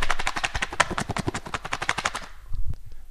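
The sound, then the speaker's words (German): A cardboard box labelled "Spring ins Abenteuer" on the front is shaken vigorously, its contents rattling in a fast, dense clatter for about two seconds before stopping abruptly, leaving a few faint knocks. Fairly loud, with no talking. “Eine Schachtel, wo vorne drauf steht, spring ins Abenteuer. Und sich so anhört.”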